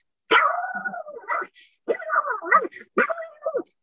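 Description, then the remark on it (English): A person imitates a pug barking, making a few raspy, nasal bark-like bursts in quick groups, fairly loud, with short pauses between them. “I could bark like a pug.”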